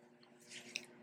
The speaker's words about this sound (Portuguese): Esse barulho que você está ouvindo são os gatos no fundo. Eu geralmente me fecho lá no escritório para poder gravar, mas eu queria um cenário diferente hoje, então você vai ouvir os barulhos da minha casa.